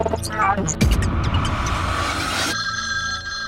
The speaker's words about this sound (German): Was ist das denn? Ach, mein Piano. Bin am Staubwischen.